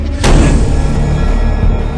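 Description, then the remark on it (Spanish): A single loud door slam, a sharp bang with a deep, booming thud that rumbles and fades slowly over the following second and a half, with no voices. “Además están muertos. ¿Qué me van a hacer? Cerrar la puerta.”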